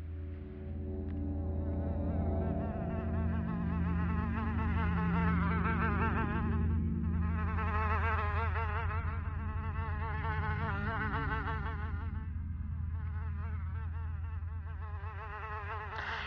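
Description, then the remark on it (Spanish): A fly buzzes in a steady, insistent drone that never stops, its pitch wavering slightly as it hovers and circles. No voices are heard. “No han visto la mosca esta tarde”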